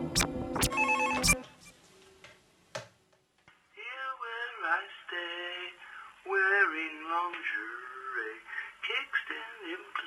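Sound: telephone ringing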